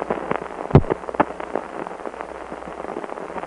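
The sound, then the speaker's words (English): Crackling static hiss on a ground start phone line after it went on hook, a steady bed of noise broken by sharp pops and crackles, with one louder click early on, no voices. “and we still heard the static during the 10 seconds between that on hook event and our timing back to dial tone, proves that that is a ground start line.”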